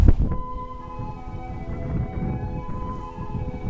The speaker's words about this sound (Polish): Więc to jest, wszystko jest park. To jest jakiś tajfun normalnie. Jak się odwrócę w tą stronę, to nic nie będzie słychać.